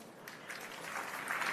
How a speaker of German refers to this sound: Ja, müder Applaus.